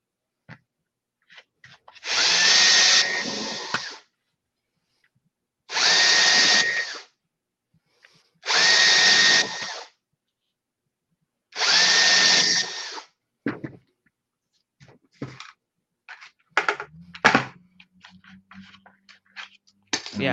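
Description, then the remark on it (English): A power drill whirs through four separate holes in plastic into scrap wood underneath, each a loud, steady burst about a second and a half long, with short pauses between. Clicks and handling clatter follow at the end. “So I'm just going to stick that on there and then drill through each one of these holes here.”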